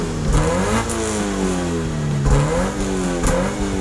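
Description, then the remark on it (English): A car engine revs hard several times, its pitch climbing and dropping in repeated surges, loud with no voices present. “So, let's get revved up!”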